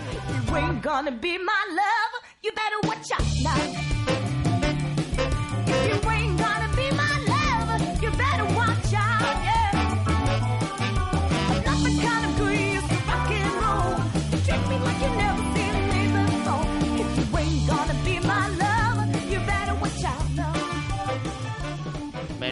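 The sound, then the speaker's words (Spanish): Recorded band music plays loudly and steadily throughout, with a dense, full sound. It drops out briefly near the start, then continues without pause. “Este es … con …. Mm, a ver, súbelo.”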